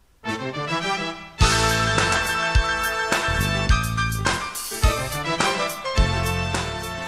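Funky instrumental soundtrack music from the film Det Stora Blå (The Big Blue), with a punchy bass line, bright horns or keys and steady drum hits, starting softly then kicking in fully after about a second and staying loud and upbeat.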